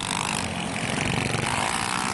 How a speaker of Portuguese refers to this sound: Início da madrugada. Os motociclistas invadem as ruas de Belo Horizonte.